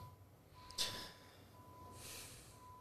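A sharp, forceful snort through the nose, followed about a second later by a softer, longer huff of breath; both fairly quiet, with no talking.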